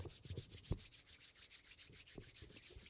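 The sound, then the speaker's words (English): Hands rub together in quick back-and-forth strokes, a soft steady swishing friction with a few faint thumps, no talking. “I'm rubbing my hands together.”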